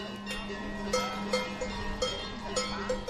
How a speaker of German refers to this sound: Es gibt Bauern, die haben praktisch so ein ganzes Konzert die schauen, dass ihre Glocken einen gewissen Gleichklang haben. Das hört der Bauer raus, da sind meine Kühe drüben und der weiß, die vom Nachbarn, die sind auf der anderen Hangseite.